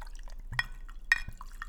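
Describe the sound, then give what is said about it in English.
Brockman's gin trickles and drips into a glass for a gin and tonic, punctuated by two bright, ringing clinks of ice, fairly quiet with no one speaking. “Well, as you've got yours going here, I'll pour mine.”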